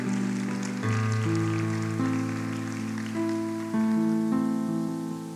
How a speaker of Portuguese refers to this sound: Eu queria convidar você a dar uma salva de palmas, porque nós somos fracos, mas Ele é poderoso.